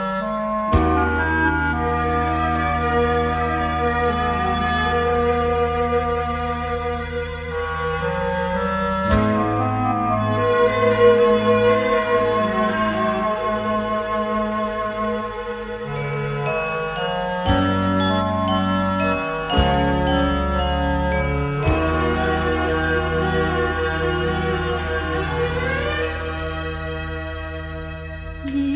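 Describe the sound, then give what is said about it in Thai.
A Thai pop song by a female singer plays steadily at full volume, with bright chiming, bell-like tones over a full band and a few sharp section changes. “สำหรับในช่วงนี้เรามารับฟังเพลงเพราะๆกันก่อนสักหนึ่งผลงานเพลง”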